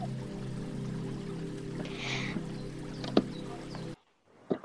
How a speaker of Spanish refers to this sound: ¡Miren, una ola se acerca! ¡Corran!